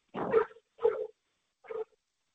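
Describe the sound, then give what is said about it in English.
A dog barks three times, the first two barks close together and the third after a short pause, with no one speaking over them. “I think the dog had a question as well.”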